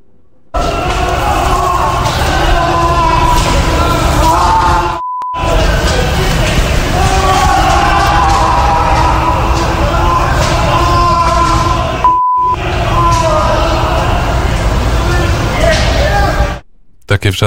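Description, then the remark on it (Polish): Loud, chaotic shouting and yelling from many voices of prisoners held by Belarusian authorities, heard from outside the detention building, muffled, mixed with banging and a steady din, broken by a few brief silences. “tam słyszeliśmy głosy, właściwie głosy, no właściwie wrzaski więźniów więźniów, którzy, którzy są przetrzymywani przez, przez władze białoruskie, to może posłuchamy przez chwilę, jak to brzmiało.”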